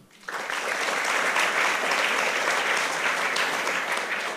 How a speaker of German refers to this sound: Und ein letzter Applaus für Thalia äh, Live, die das hier alles äh, organisiert haben und veranstalten. Danke an euch.